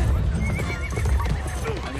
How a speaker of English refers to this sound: That horse is on a mission. Missionary, maybe. It's a white horse. A horse of death.